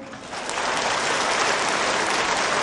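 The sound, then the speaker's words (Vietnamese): A crowd breaks into loud, sustained applause welcoming an artist, the first guest, onto the stage; it swells quickly in the first half-second and then holds steady as a dense wash of clapping. “Xin quý vị hãy dành một tràng pháo tay thật lớn đón mừng nghệ sĩ”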